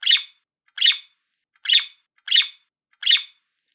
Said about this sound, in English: Up in the tree, Sampa chirped five times.